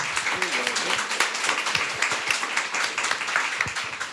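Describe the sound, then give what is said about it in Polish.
Dense, steady applause from an audience welcoming Jasiek Kuroń, author of the book Sprytna Kuchnia, czyli Kulinarna Ekonomia; many hands clapping at once, with a few voices briefly audible beneath it near the start. “Wielkie brawa.”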